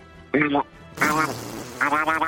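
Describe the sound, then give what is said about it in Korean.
A person imitates a duck with three nasal, buzzy quacks: a short one, then two longer, raspy ones. The quacks are loud, with no other talking. “오리 소리 한번 해보겠습니다.”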